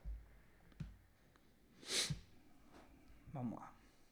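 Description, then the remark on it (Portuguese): A nasal sniff, one sharp, airy inhale in the middle, with a couple of fainter breathy snuffles and soft clicks around it; a person sniffling because the weather has left them stuffed up. “as fungadas, Fred, é porque, de novo, tá, tô fudido de clima aqui”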